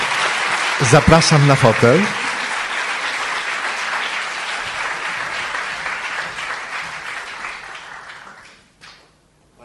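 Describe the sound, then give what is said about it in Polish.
Steady audience applause, a dense crackle of many hands clapping for about eight seconds before fading out. A voice speaks briefly over the start of the clapping. “Wielkie brawa.”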